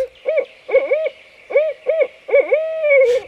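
A barred owl hoots in a rapid series of rising-and-falling calls, ending in a longer drawn-out note, loud with no talking.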